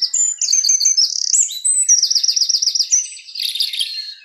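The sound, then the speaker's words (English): Birds chirp and sing continuously in bright, high-pitched warbling phrases with rapid trills, clear, with no talking. “these small vocal creatures offer sheer delight from any angle”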